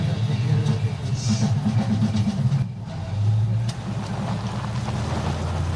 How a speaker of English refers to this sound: And as he drives off